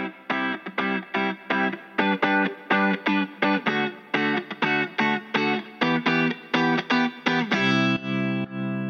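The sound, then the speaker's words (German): Loud, rapid ringing of church bells, a dense series of strong metallic strikes in a steady rhythm, ending in a sustained, overlapping resonance. No voices are heard. “Es ist höchstwahrscheinlich ein Zufall, dass in dem Moment die Glocken gerade ganz laut anfangen und Leute.”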